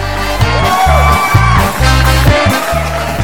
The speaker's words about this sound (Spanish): Fuerte el aplauso, algarabía, júbilo entre los oyentes